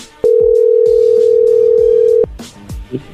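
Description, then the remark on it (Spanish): A telephone ringing tone sounds as one steady, mid-pitched beep held for about two seconds, loud and even, with soft clicks and thumps before and after it, as a number is redialed after the other person hung up. “Ya colgó Choco. A ver, márcale de nuevo.”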